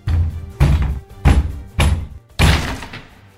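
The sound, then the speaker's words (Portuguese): Five heavy, booming thuds land at a steady pace as FBI agents repeatedly ram the door of a room to force it open. Each blow is loud, with a short echoing tail and no voices. “Alguns minutos depois, ouviu-se a porta daquele cômodo tentando ser arrombada.”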